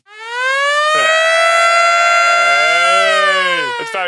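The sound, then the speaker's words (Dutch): A loud alarm siren wails steadily for about four seconds, its buzzy, harmonic-rich tone holding high and then sagging slightly in pitch toward the end. No one speaks. “3-2-alarm.”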